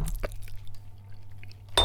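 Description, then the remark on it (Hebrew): A high-quality glass box of dates being handled, giving a few short clinks and knocks, ending in a brighter, sharper clink with a brief ring. No one speaks. “וואי, אבל זה יפה הקופסה. מאוד טוב. יפה, זכוכית מאוד אה, איכותית.”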